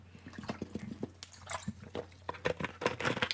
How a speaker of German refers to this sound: Ja, aber bevor wir das tun, muss ich tatsächlich einmal, weil ich ja keine Sprechpause habe, muss ich einmal kurz einen Schluck Wasser äh, mir die Kehle herunterlaufen lassen.